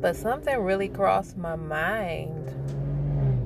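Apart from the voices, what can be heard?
car engine noise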